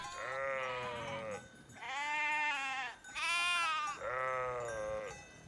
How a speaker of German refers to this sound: Also eigentlich sind wir in einer Schafherde gelandet, aber auf dieser Seehöhe, so nahe dem Himmel, ist die Assoziation naheliegend. Und das Klingeln und Blöken hat auch etwas Himmlisches.